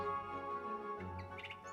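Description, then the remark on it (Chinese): A nightingale chirps a few quick, high-pitched notes over a steady, sustained musical hum, with the bright little calls clustered toward the end. “原来，这正是那只真正的夜莺啊！”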